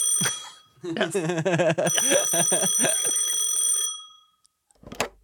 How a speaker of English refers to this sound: Oh, shoot, my phone.